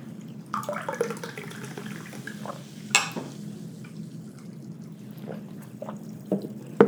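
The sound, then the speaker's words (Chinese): A fizzy drink bubbles as it is poured, a continuous crackling hiss dotted with tiny pops, one sharper clink partway through, over a steady low hum. No one speaks. “今天的气泡都蛮给力的。”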